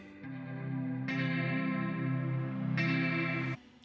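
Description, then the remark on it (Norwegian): A rock music track by a band from Helsinki, Finland, with thick, distorted guitar chords drenched in chorus effect, played loud and sustained, with brighter surges midway and near the end before it drops off. “Vi skal høre litt mer musikk her.”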